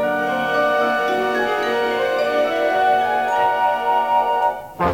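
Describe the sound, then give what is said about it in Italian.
A 1963 Japanese TV cartoon theme song plays loudly and steadily, full of sustained melodic tones, with a brief break near the end and no voices. “i bambini nel 1963 accendevano la tv in Giappone e, eh, sentivano eh, questa sigla qua.”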